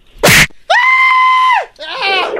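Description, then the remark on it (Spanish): A sharp smack is followed by a woman's long, high-pitched scream of pain and then a shorter, wavering cry, all loud with no talking. “Ella más grita como cuando se la”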